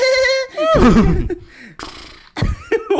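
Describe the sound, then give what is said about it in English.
A person imitates a horse neigh, a loud, shaky whinny with wavering falling pitch and breathy snorts, repeated in a few quick bursts over about three seconds with no other talking. “I do a good horse impression.”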